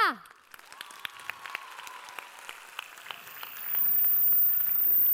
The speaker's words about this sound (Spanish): Aplausos para equipo Ja!